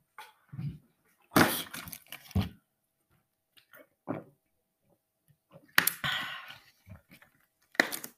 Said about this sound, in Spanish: Ay, voy a beber un poco de agua que tengo sed, espera.